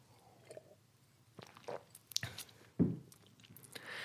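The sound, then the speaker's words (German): Someone takes a sip of water: quiet wet mouth sounds and lip smacks, then a soft gulping swallow, with no talking. “Mal einen Schluck Wasser trinken.”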